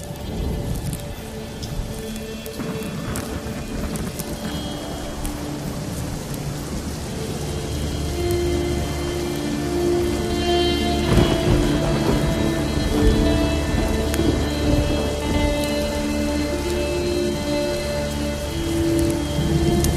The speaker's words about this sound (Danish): Åh, oh, jeg kan slet ikke overskue det. Det regner simpelthen alt for meget.